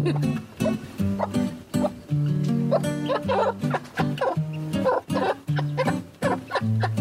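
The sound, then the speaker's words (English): A mother hen gives her food call to her chicks over grain, a rapid run of low, throaty clucks repeated fairly loud, with no talking over it. “Like that's the noise that that little chicks respond to.”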